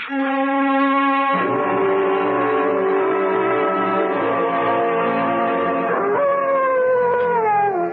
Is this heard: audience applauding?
no